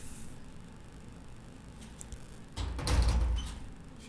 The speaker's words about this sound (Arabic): نسى يسكر الباب اصبر بسكره.